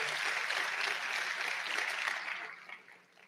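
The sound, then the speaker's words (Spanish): An audience applauds together, a dense, steady patter of many hands clapping that holds for a few seconds before thinning out and fading toward the end. “Un aplauso para todas las mujeres que tienen ese don de fe.”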